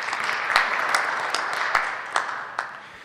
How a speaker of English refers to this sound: Round of applause. Good job. Nice job.